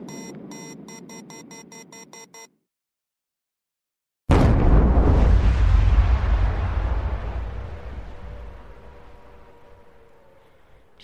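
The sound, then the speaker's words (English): A short run of electronic tones, a moment of silence, then a sudden massive blast swelling into a deep, roaring rumble that slowly fades over several seconds, like a nuclear explosion. “Then there are human things that make infrasound, like airplanes, rockets, and nuclear explosions.”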